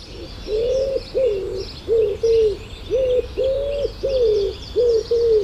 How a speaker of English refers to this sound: And the other one that people know quite a lot is uh, wood pigeons, which they'll see in the gardens or out on farmland or in woodland, and they have five notes, which is do do do do do do do do do do.